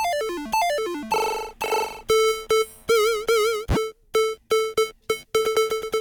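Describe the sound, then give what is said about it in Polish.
Bright, buzzy chiptune synthesizer notes rattle through rapid stepped arpeggios, some sliding or wobbling in pitch, in short clipped bursts, loud and with no voices. “Tu są y, arpeggio różne.”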